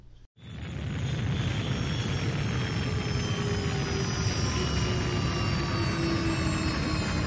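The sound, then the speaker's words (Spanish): A small patrol spaceship landing carefully and precisely on a sunlit landing field, its engines roaring steadily and loudly, a dense rumbling drone with high whining tones, starting abruptly after a brief pause and holding constant throughout, no voices. “La pequeña nave patrullera aterrizó con cuidado y precisión. Los motores tosieron hasta el silencio final.”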